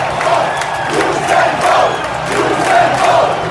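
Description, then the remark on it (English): A large crowd in the Olympic Stadium roars and cheers continuously on the night of Usain Bolt's 100 metre gold medal win, a loud, dense wash of voices that swells and dips in waves, with whistles and shouts poking through the din. “And to get a feel for what it was like, what it smelt like, what it sounded like to be in the arena, we put this together Usain Bolt's 100 metre gold medal winning night.”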